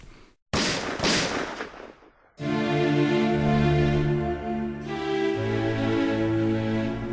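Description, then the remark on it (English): A single loud gunshot cracks out after a brief silence and rings off in a noisy, reverberant tail, then sustained low musical tones swell in and continue to the end. “The 20th century began with a gunshot.”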